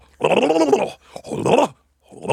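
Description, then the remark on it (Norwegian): A voice imitates monkey calls in three loud bursts of hooting, groaning cries, the third cut short, with brief pauses between them and no other talking. “Det er apekatter.”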